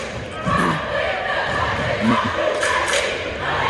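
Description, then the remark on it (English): The Trinity Catholic crowd at a school game roars out a retaliation cheer, a dense, steady wash of many voices shouting together, with occasional thumps and thuds mixed into the noise. “This is the retaliation cheer.”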